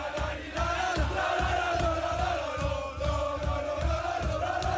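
A group of football players cheers and chants loudly in the locker room at the end of a match, in a steady rhythm, their voices joined by repeated thumping beats roughly twice a second, continuous and energetic throughout.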